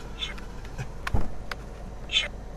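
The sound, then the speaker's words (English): A General Grievous toy voice mask with nearly dead batteries sputters out a few short, crackly, distorted cough-like bursts, spaced apart and fairly quiet against a faint background hiss. “Its batteries are almost dead though, so all he does is cough.”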